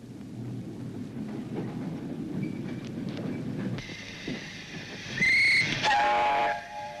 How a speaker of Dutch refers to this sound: de laatste stoomtram reed toen nog in Nederland. Een bijzondere verschijning in deze eeuw van stroom en atoom is het historische trammetje dat deze zomer voor het laatst enkele weken ten dienste staat van de vakantiegangers in de Gelderse Achterhoek.